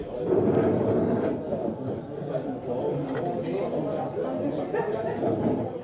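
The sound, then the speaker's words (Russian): Busy city-center coffee shop ambience: a steady, dense wash of overlapping, indistinct conversation filling the room, with occasional brief clinks and clatter breaking through at a constant, moderately loud level. “Это звук кофейни в центре города.”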